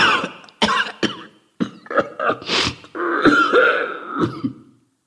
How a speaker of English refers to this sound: At this moment, he begins to cough violently, and the man on his right rushes forward with a handkerchief. He places the handkerchief in the prophet's hand, and the prophet coughs into it for a few seconds, and then he wipes his mouth.